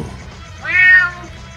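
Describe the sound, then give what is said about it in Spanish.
A single meow from the cat Gato Mayo, drawn out for about half a second with a rising then falling pitch. It sounds clear over a low, steady background hum. “Me acompañan hoy el Gato Mayo,”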